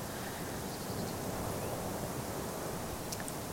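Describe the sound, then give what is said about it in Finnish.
Strong wind roars steadily across an open lake, a dense, continuous rushing hiss with no pauses, blowing snow along in large clouds. No voices, just the constant gusting noise. “Ja järvellä menee, kun on noi tuulee niin kauheasti, menee isoja noita lumi.”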